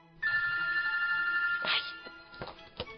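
A mobile phone ringtone plays loudly in a theatre with a steady electronic tone and harmonics, followed by a few short sharp bursts as it cuts off; no one speaks.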